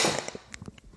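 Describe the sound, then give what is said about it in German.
A single sudden sneeze bursts out at the very start, a sharp, breathy blast that quickly fades, followed by a few faint clicks and taps with no talking. “Gesundheit.”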